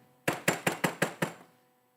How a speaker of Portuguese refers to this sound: Alguma coisa muito grave, isto é urgente, estão batendo na porta.